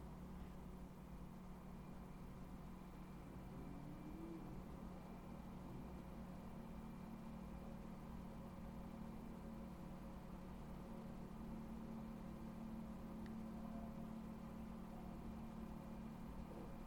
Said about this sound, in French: Et peut-être que dans le spectacle du moment présent, tu peux entendre euh, la mélodie du gros camion euh, dans la rue.